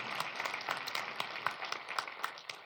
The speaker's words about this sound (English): sunday and throughout the week they're changing diapers they're planning curriculum and i thought maybe just for a moment if we could just clap for them and make a lot of noise and celebrate them this morning thank you guys for what you do thank you